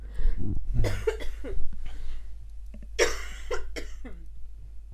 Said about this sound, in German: Dieser Husten im Hintergrund ist ansteckend. Ja, merke ich auch. merke ich auch, dass ich einen Kratzen im Hals habe.